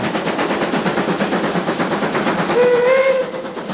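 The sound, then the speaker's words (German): A steam train chugs steadily in a rapid, rhythmic beat, then a high whistle sounds with harmonic tones for about a second near the end over the ongoing engine noise. “Die Eisenbahn, die ist gerade erfunden worden und jetzt breitet sie sich rasant aus.”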